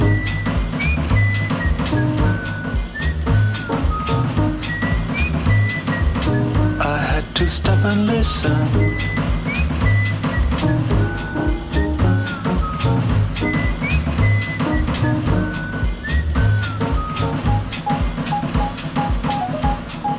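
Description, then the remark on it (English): A thin, high whistled tune, coming through an open window, steps through a simple melody, riding over a dense, busy backing of steady low tones and repeated percussive clicks that stays loud throughout. “I heard somebody whistle.”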